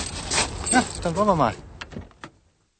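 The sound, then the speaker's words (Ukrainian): Car keys jangle and clink in a short burst as they are fetched for a test drive of a car, with a voice briefly talking over them, followed by a few sharp metallic clicks before it falls quiet. “Gut, Moment, ich hole nur schnell die Schlüssel.”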